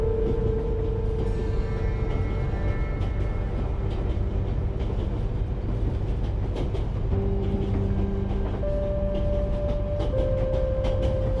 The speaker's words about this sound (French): vous êtes installé confortablement pour un long voyage dans le magnifique train à vapeur Transvoyage Express. Vous allez voyager à bord de ce train luxueux dont l'équipage est à votre entière disposition pour veiller à votre confort.